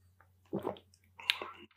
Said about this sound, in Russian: Ну, пью сейчас острый томатный гоза.